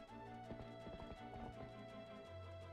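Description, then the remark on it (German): Rapid clip-clop of a galloping horse's hooves in a video game, the player's own horse nearly running the character over, drums over a steady synthetic game-music drone, the hoofbeats prominent for a few seconds with no voices. “du wirst von deinem eigenen Pferd fast überrannt.”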